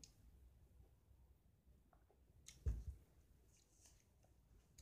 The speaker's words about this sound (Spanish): Déjeme tomar agua.